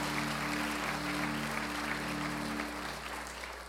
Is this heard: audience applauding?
yes